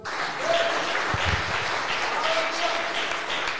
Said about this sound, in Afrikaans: Ja, dit kan seker dit ook wees. Dis 'n goeie een, gee hom 'n hande klap.